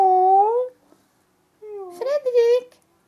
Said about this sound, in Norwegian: Du skal ikke være så lenge, lille pus. Å, så trist. Hør den.